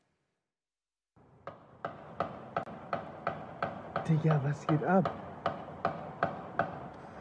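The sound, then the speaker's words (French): A steady series of sharp, distant gunshots from a gunman's targeted attack at a parish house, filmed by a witness from his window: roughly sixteen evenly spaced cracks over several seconds, with a man's voice speaking briefly over them partway through. “On entend plusieurs coups de feu.”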